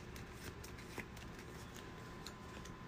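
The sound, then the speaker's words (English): Game cards, including three set-aside doorway cards being put into play, are shuffled, a steady papery riffling and rustling with small crisp snaps running for a few seconds, no voices over it. “Uh, when the darkened halls reveal, put the three set aside doorways into play. give us a quick shuffle.”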